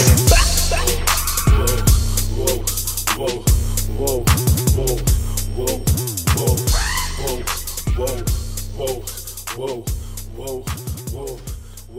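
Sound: rap song playing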